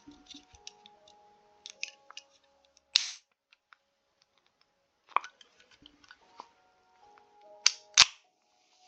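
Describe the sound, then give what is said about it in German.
Someone drinks a slightly flat Sprite soda: scattered small clicks and wet mouth sounds, with a few sharper, louder bursts around the middle and near the end, and no talking. “Ich hoffe, es stört euch nicht, wenn ich eine leicht laube Sprite nebenbei trinke.”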